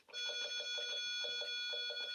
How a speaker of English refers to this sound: This is an interesting ringtone.